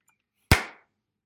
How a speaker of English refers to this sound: Okay, starting the show in three. Well, let me clap sync first. One.